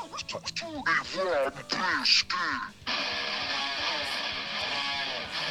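A recorded guitar riff with swooping, bent notes in quick succession, then a dense, sustained distorted wall of sound for the remaining seconds, loud.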